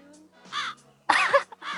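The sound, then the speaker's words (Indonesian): A harsh, crow-like bird call sound effect caws in three loud bursts, the middle one strongest, with brief gaps between them over a faint low background hum. “Ini garing nih kalau ada suara burung nih.”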